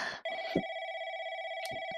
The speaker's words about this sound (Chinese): 哎，有人打电话来了，你快接吧。